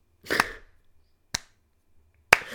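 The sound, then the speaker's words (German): Three loud, sharp hand claps imitating stiff German-style clapping, completely out of time, evenly spaced about a second apart in a slow, stiff rhythm, with no talking around them. “Und äh, auf einmal fingen diese beiden, kam, äh, diese beiden Kumpels von uns an, richtig schön deutsch zu klatschen.”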